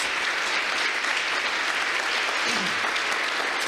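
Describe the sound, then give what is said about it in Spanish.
An audience applauds the word of God after a Bible reading, steadily, a dense wash of many hands clapping at an even, sustained loudness for several seconds with no voices breaking through. “¿Por qué no le dan un aplauso a la hermosa palabra de Dios?”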